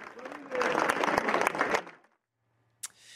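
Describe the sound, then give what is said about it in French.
A crowd of residents claps steadily for about two seconds for a girl's uncle, who thanked the crowd after a pink march ended in front of the family home. The dense overlapping applause swells, then quickly dies away into silence, followed by a brief sharp click and a faint hum. “Et a été applaudi par les habitants.”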